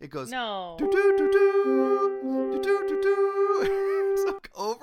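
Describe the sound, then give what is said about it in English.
A voice imitates a horn-like text message alert with a long, steady, buzzy hummed tone that shifts slightly in pitch for several seconds, framed by brief speech before and after. “It's a horn. It's like a call to arms.”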